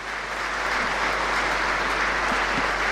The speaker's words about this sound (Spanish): Como pueden escuchar, la catedral ha roto un aplauso, ¿es verdad, padre?